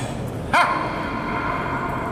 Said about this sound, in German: Wow. Schöner, schönes Echo. Es ist eine runde Röhre